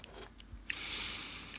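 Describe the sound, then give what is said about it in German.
Wet chewing of fresh strawberries, with a few short crunchy bites up front and then a steady, juicy mashing sound, quiet, with no talking. “Wenn Erdbeeren essen, dann jetzt, meine Lieben.”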